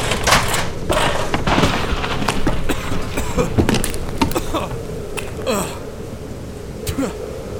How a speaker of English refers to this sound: I hate explosions.